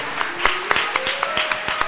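An audience at a CCH school event applauds a returning graduate steadily for about two seconds, a dense patter of many hands clapping with a few sharper claps standing out, and a faint sustained tone running underneath.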